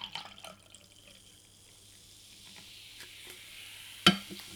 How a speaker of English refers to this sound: Well, right by the microphone. you poured a, a, drink literally on the microphone.